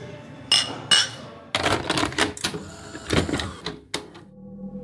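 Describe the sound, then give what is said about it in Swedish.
Two bright, ringing clinks of glasses touching in a toast, fairly loud, followed by a busy stretch of clattering, rattling noise with no one speaking. “Men eh, jag höjer min bägare här.”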